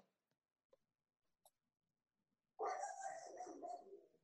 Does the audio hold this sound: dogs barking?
yes